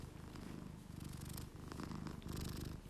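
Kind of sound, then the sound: animal, cat purring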